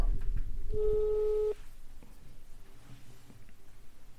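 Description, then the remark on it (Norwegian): A single steady electronic ringback tone of an outgoing phone call to a guest sounds for under a second over a low background rumble, then cuts off, leaving quiet room noise. “Så vi, vi ringer bare henne.”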